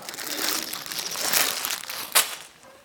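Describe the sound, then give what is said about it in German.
Paper crinkles and crumples continuously for a few seconds, fairly loud, with a sharper crackle near the end before the rustling fades out. “Ich will einen Flieger, kein Papier.”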